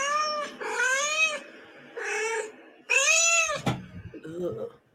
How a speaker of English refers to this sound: If you ever can't find your cats, guys, just play cats meowing.